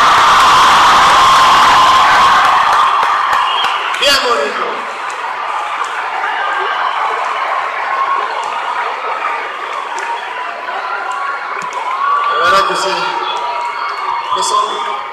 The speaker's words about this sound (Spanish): Un gran aplauso a todos ustedes, pero que suena bien fuerte.